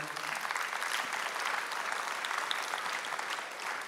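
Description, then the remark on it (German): Steady applause from an audience, a dense wash of many hands clapping at an even level throughout, with no voices standing out. “Lass uns den Leuten Applaus geben.”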